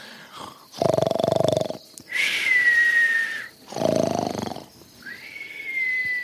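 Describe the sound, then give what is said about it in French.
Loud snoring in a steady cycle: two rasping, rattling inhales, each followed by a thin, high whistle on the breath out, with no talking, as Professor Sapiens falls asleep on a hippopotamus's belly among hippos at a river in the African savanna. “Il y a vraiment que le professeur Sapiens pour s'endormir au milieu des hippopotames.”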